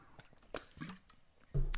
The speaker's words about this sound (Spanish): Ah, se escuchan las burbujas, ¿no? Ah, era una tragada de agua dramática.